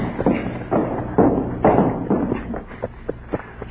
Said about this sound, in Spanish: ¿Oye? Ay, uno de a caballo. Pero Porfirio no tenía caballo.